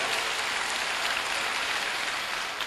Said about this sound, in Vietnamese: hãy dành tràng pháo tay cho ý thức tốt này